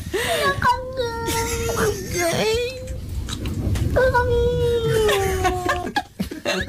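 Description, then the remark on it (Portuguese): A stressed, angry, clearly agitated cat lets out two long, drawn-out moaning yowls with a wavering pitch, fairly loud, separated by a short pause with scuffling noise. “Isto, isto, eles fazem estes sons quando estão em stress ou quando estão zangados com alguma coisa ou com outro gato.”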